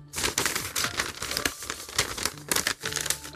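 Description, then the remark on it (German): Stiff paper crinkles and rustles continuously as a road map is folded, with a steady run of crisp, papery bursts and brief pauses in between; no one speaks. “Landkarten zusammenfalten.”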